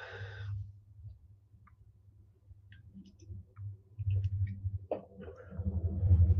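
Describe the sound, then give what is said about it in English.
A train approaches downtown, passing right in front of the listener, its low rumble growing steadily louder, with faint clicks and rattles building as it comes. “I got a train coming right here.”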